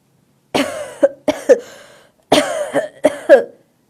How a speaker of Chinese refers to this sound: 咳嗽，嗓音呀十分粗重。定睛一看，那不正是杰克逊先生吗？